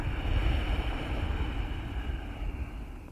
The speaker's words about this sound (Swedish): och lyssna till ljudet av andetaget och känslan av andetaget som blir när du andas ut med det här lätta motståndet. Vi har då aktiverat vårt halslås, eller Jalandhara Bandha som den också kallas.